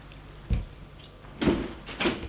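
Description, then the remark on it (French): A door being shut by a woman who has just come in: a short low thump, then a heavier clunk about a second later and a final knock as it latches, all fairly soft with no voices. “Et ferme la porte.”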